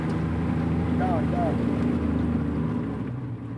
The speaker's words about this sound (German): Unser Boot verlangsamt.